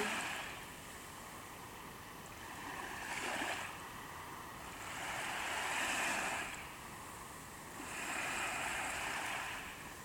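Ocean waves wash onto the shore in a slow, steady rhythm: about three soft swells rise and recede over a constant hiss of surf, with no voices.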